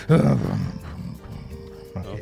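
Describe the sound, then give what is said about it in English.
A person vocally imitates a sputtering old jalopy engine to mimic their brain powering up: a loud growling burst at the start, then a rough, uneven rumble that chugs along and briefly revs again near the end. “it sounds like a jalopy.”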